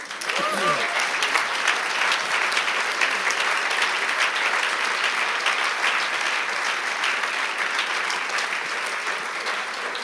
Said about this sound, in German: Danke, herzlichen Dank und auch für, dass wir das einfach so benutzen dürfen. Das ist nicht selbstverständlich. Ein, auch noch einen Applaus an ihn.